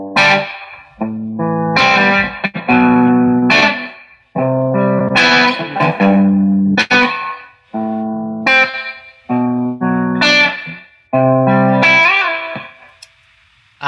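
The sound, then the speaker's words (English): Electric guitar through an amp with its spring reverb turned all the way up, loud strummed chords in short bursts with brief pauses, each ringing out in a wet, splashy wash. No talking. “Let me just crank the spring reverb.”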